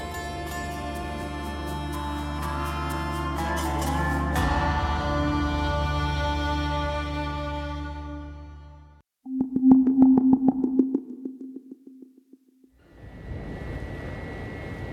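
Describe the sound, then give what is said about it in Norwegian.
A ship's engine, probably that of a grain ship that reached the Horn of Africa loaded with 23,000 tonnes of grain from Ukraine, drones steadily with a deep, layered hum, then drops to a pulsing, throbbing tone before giving way to a broad, rushing rumble. “Dette er lyden av motoren til et skip, og sannsynligvis det skipet som har blitt mest fotografert denne veka.”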